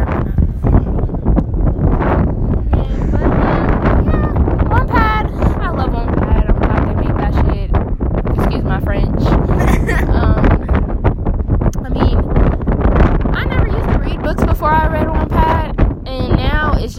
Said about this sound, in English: Oh my god, why is it so windy? It's not okay.